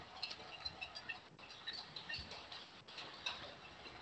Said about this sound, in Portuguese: É, até na favelinha aqui, ó, que tem do lado de casa, os caras estão batendo panela, ó lá, ó.